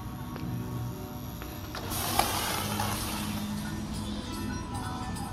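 A fountain splashes steadily, its watery rush swelling a couple of seconds in and then holding, with a low mechanical hum underneath. No voices.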